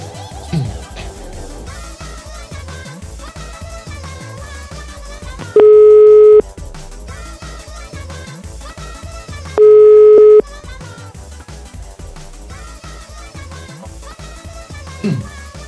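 A telephone ringback tone sounds twice while calling, each a loud, steady beep under a second long, about four seconds apart, over busy music playing throughout.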